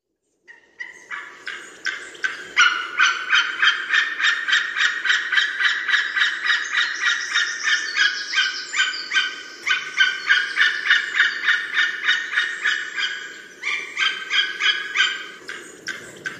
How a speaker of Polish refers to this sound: Gęsi gęgają